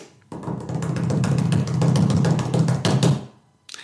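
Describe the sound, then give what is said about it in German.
A rapid hand-tapped drumroll on a hard surface, dense fast strikes building steadily for about three seconds before stopping abruptly, fairly loud with no voices. “Möchtest du einen Trommelwirbel machen?”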